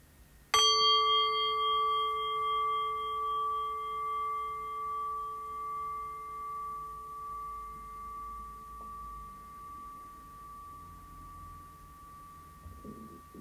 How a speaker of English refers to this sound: And ringing the bell.